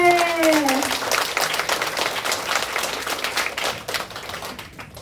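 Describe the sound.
Audience applause: dense, steady clapping from many hands throughout, with a voice briefly overlapping at the very start and the clapping easing slightly toward the end.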